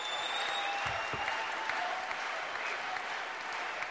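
Sustained audience applause fills the whole stretch, a dense, steady wash of many hands clapping at an even loudness with no talking over it.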